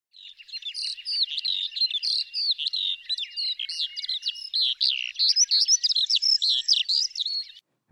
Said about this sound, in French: le chant que je viens de vous partager est celui de l'alouette des champs